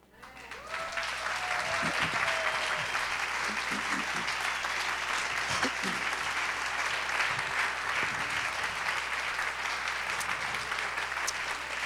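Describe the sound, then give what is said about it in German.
A church audience breaks into sustained applause to give glory to God and thank the pastors, a dense, steady wash of clapping that holds at an even loudness for about eleven seconds, with a few faint voices calling out underneath. “Wir wollen jetzt nicht Ihnen klatschen, wir wollen Gott alle Ehre geben, was er getan hat, auch durch die Pastoren.”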